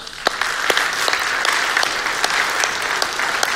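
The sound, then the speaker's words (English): A crowd in the East and West auditoriums applauds steadily to thank those who thanked them, many hands clapping in a dense, continuous patter with scattered sharper claps standing out. The applause stays fairly loud and even throughout, with no voices. “So get your get your clapping hands ready, okay?”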